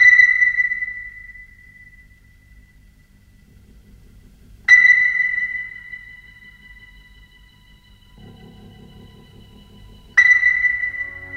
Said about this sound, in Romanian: … se deschide cu același tip de senzație ca și …, un sunet repetitiv la distanțe mai mari